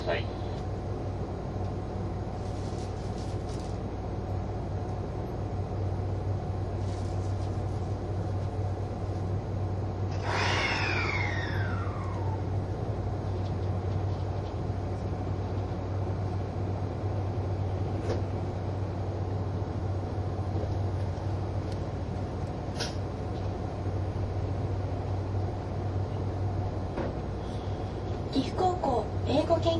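A steady, low engine drone fills the Green Car of a moving HC85 series hybrid express train, Hida No. 1, running from Nagoya to Takayama, Japan. A brief descending electric-motor whine rises above it midway. The sound is continuous, without any clear talk.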